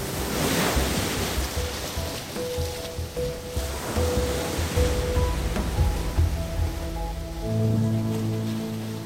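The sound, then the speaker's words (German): Gentle waves of the Dead Sea wash steadily onto Kalia Beach in the West Bank, swelling and receding in soft surges, with faint voices and tones murmuring in the background. “taucht mit uns jetzt ab ins Tote Meer am Kalia Beach.”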